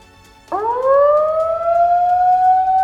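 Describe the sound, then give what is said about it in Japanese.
A loud warning siren sounding as the gates of a flood discharge channel open kicks in abruptly and rises to a sustained, steady wail, holding its piercing tone without any voices. “放水路の門が開くサイレンが鳴った佐竹は口を開いたしかしこのけたたましい音によって彼の発する言葉が聞こえなかった”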